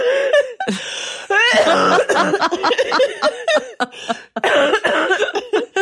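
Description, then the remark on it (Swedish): A run of harsh, repeated coughs broken by short gasping breaths and wheezy, laugh-like bursts, loud and irregular, lasting several seconds with no clear speech. The coughing comes on while laughing hard, from someone not fully well. “Nu kommer hostan.”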